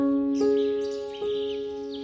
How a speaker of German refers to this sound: Vögel sitzen in den Bäumen und singen ihr Frühlingslied.